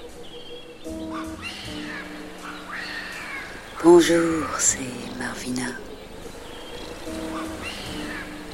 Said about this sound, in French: Vous entendez le bruit des oiseaux exotiques derrière moi Oui, vous entendez.